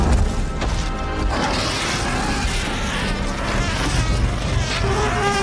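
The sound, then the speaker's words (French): A loud, sustained dragon roar sound effect with a harsh, rasping, buzzing texture, holding steady for around five seconds with slight surges and no talking over it. It was made from the cries of very drunk fans in a Chicago bar, later remixed. “Euh, le cri du dragon.”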